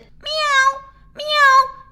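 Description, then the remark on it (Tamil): The cow Lakshmi gives two thin, high, kitten-like mewing calls, each about half a second long with a short pause between them. Fairly loud, with no talking. “பூனைக்குட்டியைப் போல சத்தமிடும் பசு லக்ஷ்மியும் கூட எல்லோருக்கும் செல்லப்பிள்ளை ஆகியிருந்தாள்”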